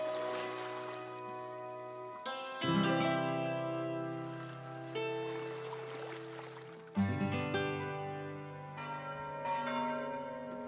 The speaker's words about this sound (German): Ich sehe die stille Insel von der die feierlichen Glockenklänge herüberklingen.